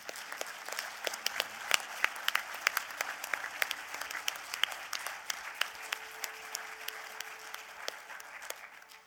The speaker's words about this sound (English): So I actually want to um, just applaud my mom if, if you go with me.